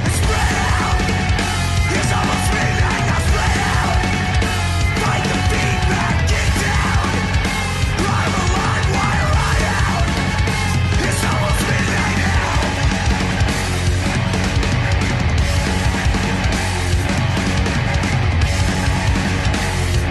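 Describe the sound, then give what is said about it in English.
Loud, dense heavy rock with pounding drums and thick distorted guitars, intricate busy riffing throughout, and harsh yelled vocals cutting through the wall of sound for the full stretch. “It's a nice long band name, but another cool, techie, interesting, heavy band that uh, I got from that playlist.”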